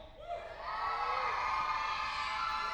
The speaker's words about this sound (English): And we have them all in here this morning. Can all the kids that are in the house give me a yell?